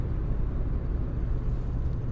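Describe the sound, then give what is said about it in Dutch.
A steady, heavy low rumble of road noise inside a moving car, constant and fairly loud throughout with no voices or distinct events. “Waarschijnlijk horen jullie ruis van de auto, maar ja, die gaan we wel...”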